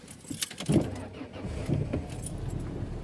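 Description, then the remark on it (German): Keys jingle with bright metallic clinks near the start, followed by a car engine turning over, starting right away, and settling into a low, steady rumble. “Und schon wieder springt er sofort an.”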